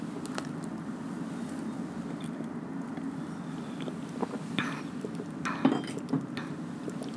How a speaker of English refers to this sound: let me drink some damn water because I'm getting, I'm too excited